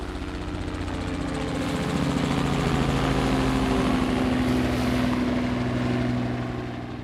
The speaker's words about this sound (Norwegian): Eh, da er det egentlig bare å eh, sele på, kle seg opp og eh, hoppe i helikopteret. Og så flyr vi mot den posisjonen som vi har fått tildelt.